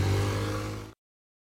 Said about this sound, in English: was that a moped that just drove by?